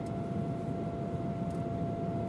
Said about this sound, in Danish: Flyvemaskinen starter og er oppe i luften på ingen tid.